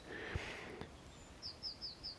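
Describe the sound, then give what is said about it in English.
Wild birds call faintly in quiet woodland by a loch, a thin high warble early on, then four short, bright chirps in quick, even succession, with no voices present. “Hearing a little bit more and what I'm wanting to catch is some sense of the of the bird life in this place because every time I I come we come to to Brendan's Creek we're aware of of the wonderful, the plethora of, of bird song around us.”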